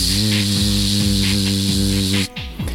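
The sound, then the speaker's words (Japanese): A human voice imitates a cicada's drone with a long, steady, hissing buzz held for about two seconds before it cuts off abruptly. The sound is fairly loud. “ミーンミンミンミンとか、つくつくぼーし、つくつくぼーし、その後はジ”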